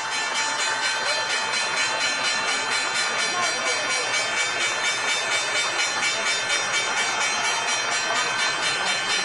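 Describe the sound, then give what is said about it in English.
The closing bell of the New York Stock Exchange, rung from the balcony, rings steadily over loud, dense applause and crowd cheering that fills the whole stretch without pause as the trading day ends. “Here we are at the closing bell. You can hear the applause.”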